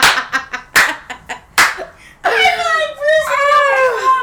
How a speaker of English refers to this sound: Oh. Literally. Like an old ass person clapping. He really be like.